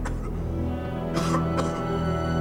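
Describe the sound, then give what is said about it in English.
A man, a prisoner in a brig cell who seems a little sick, coughs twice in quick succession, two short harsh bursts close together over a steady low hum, with no one speaking. “And he seems a little sick. He's coughing.”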